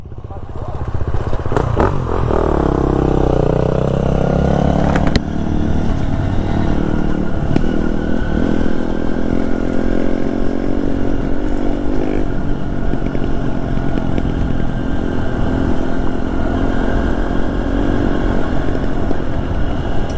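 Honda XR150L and KTM XCF-W 350 dirt bike engines drone steadily and loudly, rising and falling as they ride slowly along a rough, dusty trail in Pisgah Ranger District, with rattling clatter and gravelly scraping mixed in throughout.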